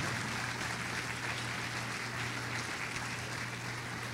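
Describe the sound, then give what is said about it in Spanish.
An audience claps steadily together, giving applause to the Lord: a dense, continuous wash of applause for several seconds with no speech over it, under a low steady hum. “Dele un aplauso al Señor, lo merece.”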